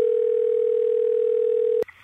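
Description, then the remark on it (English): A telephone ringing during a trip in Russia: one steady, sustained electronic ring tone, loud, that cuts off abruptly with a click as if the receiver is picked up. No one speaks. “And then the phone rang.”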